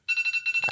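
alarm clock ringing

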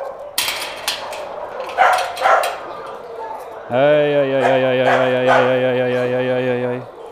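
dogs barking

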